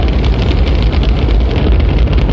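Rocket engines roar at liftoff at 49 minutes past the hour, all engines running: a loud, continuous, rumbling blast of noise with heavy low-end power and a crackling texture, steady throughout with no voices.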